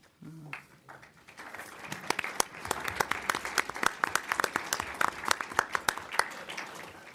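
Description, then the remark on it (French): An audience breaks into applause at the end of a lecture after a brief opening sound, the clapping building quickly into a steady, dense patter of many hands that continues throughout, moderately loud. “Vous avez vu que notre public, comme dans un bon concert, c'est abstenu d'applaudir entre les différents mouvements.”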